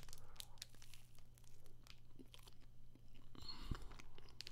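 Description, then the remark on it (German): Quiet biting and chewing of a sweet, fruit-filled snack, with a steady run of soft crunchy, wet mouth sounds over a low background hum, and no one talking. “einmal beißen reicht für mich jetzt schon”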